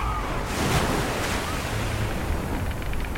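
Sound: ocean waves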